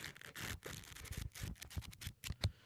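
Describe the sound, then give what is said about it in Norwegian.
Pages of a thick fantasy book with many pages are flipped rapidly in front of the microphone, a quick run of papery riffles and flaps with no one speaking. “Jeg skal bare blafre dem foran mikrofonen, sånn at dere får høre hvordan fantasybok høres ut.”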